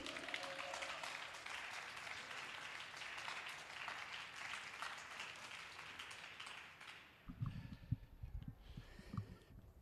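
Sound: applause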